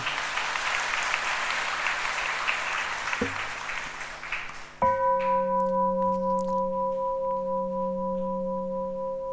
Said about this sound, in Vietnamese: hãy cho một tràng vỗ tay thật lớn để tán dương